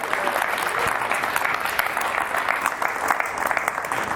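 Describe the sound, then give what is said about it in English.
A crowd applauds two people invited up to help the speaker, clapping steadily for several seconds: a dense wash of overlapping claps with sharp individual hand strikes popping through, fairly loud and sustained without letting up. “Um, so if we can give them a round of applause, that would be cool.”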